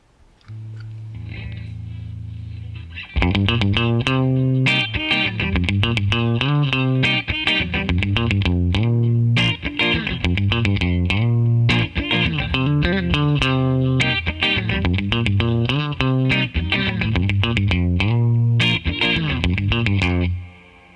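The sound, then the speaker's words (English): An electric guitar with a worn neck and some replaced wiring plays alone, opening with a soft sustained low note before launching into a steady run of strummed chords and picked notes, warm in tone, warmer than a bright Jaguar, with a touch of effect and chorus. “It's a little more warm, has more warmth than that Jaguar, which is very bright.”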